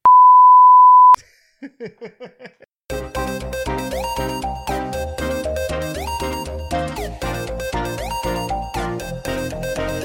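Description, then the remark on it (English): A single steady censor bleep used to cover an expletive, a loud pure beep lasting about a second, followed by a short run of quick chirpy notes and then upbeat music playing to the end. “I'll get one of those um, those sounds like it's an expletive, and I'll just put that in there every time that you say.”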